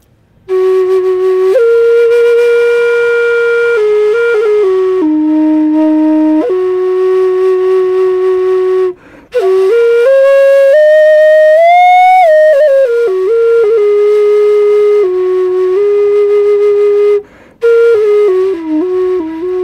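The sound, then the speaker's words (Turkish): A breathy homemade flute made from an electrical conduit pipe with a small cork inside, likened to a Native American flute, plays a loud, sustained melody of held notes and small bends, pausing briefly twice before resuming, with no talking. “yani gerçekten bu başka bir kültüre ait olan bir flüt.”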